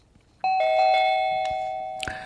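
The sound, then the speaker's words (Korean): A doorbell chimes a bright two-tone ding-dong, the first tone ringing long and sustained before a second tone strikes near the end, clear with no voices. “띵동띵동 초인종 소리입니다.”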